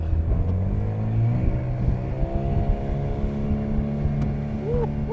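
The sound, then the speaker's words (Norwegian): A motorboat engine revs up, its steady harmonic drone rising in pitch as it accelerates out toward an island on a windy day, with rushing wind and water noise underneath. No one speaks. “OK, vi gir på, så ses vi bortpå på øya.”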